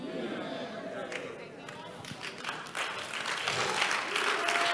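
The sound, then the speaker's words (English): An audience claps in a dense, continuous burst of applause, with voices mixed in beneath it. The clapping steadies, then swells louder over the last couple of seconds. “If you are not clapping, you are suspect.”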